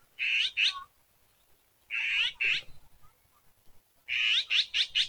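A forest wagtail at the Beijing Botanical Garden calls in short, high, sharp bursts: a pair of notes, another pair after a pause, then a quick run of four, with quiet gaps between and no talking.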